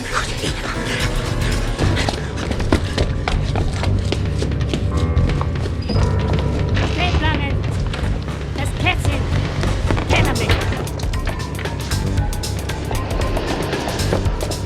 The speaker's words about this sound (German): Der erste Detektiv war gerade aus dem Hinterausgang des Gebäudes gestürmt, da hörte er, wie das harte Klacken der metallbeschlagenen Schuhe des Messerwerfers näher kam. Plötzlich glaubte Justus noch andere, weicher klingende Schritte zu hören.